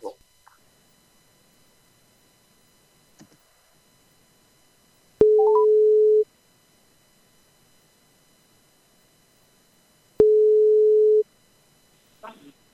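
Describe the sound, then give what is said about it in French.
A telephone ringback tone during an outgoing phone call to an upstairs neighbour sounds twice, each a steady mid-pitched tone lasting about a second, separated by several seconds of near silence, with brief faint voice fragments at the start and end. “C'est bon, tu, on, on peut appeler ah, vas-y, vas-y, c'est bon, c'est, bon.”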